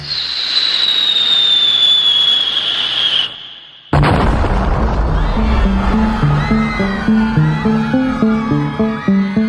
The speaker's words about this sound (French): le 23 mars 1918 à 7h17 du matin, avec un fracas qui est entendu dans tout le centre de Paris, un premier obus tombe sur la place de la République.